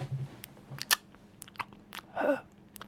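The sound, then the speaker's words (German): Quiet mouth noises made on purpose: soft wet lip smacks and clicks scattered irregularly, with a breathy puff of air near the end, imitating ASMR-style whispery breath and smacking sounds. “sitzen und die ganze Zeit so, so leichte Hauch- und Schmatzgeräusche machen. um und das mal zu simulieren.”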